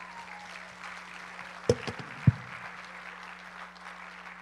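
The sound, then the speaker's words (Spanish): A Christian audience applauds the Lord during preaching, a steady wash of clapping throughout with a few sharper, louder claps standing out near the middle. No one speaks. “Verso 11, dale un aplauso al Señor.”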